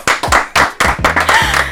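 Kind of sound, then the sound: crowd, applause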